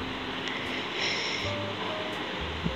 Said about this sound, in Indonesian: bisa mendengar kipas angin mungkin karena gue aduh semuanya low budget AC gue nggak punya ada sih di kamar lain di kamar utama tapi Uh, mungkin lo bisa mendengar uh, ambience luar, ambience Indonesia, uh, dan um, kipas angin yang kecil